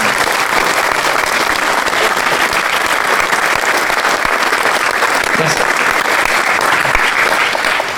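A crowd applauds warmly, a steady dense wash of clapping that holds at full strength for the whole stretch without pausing.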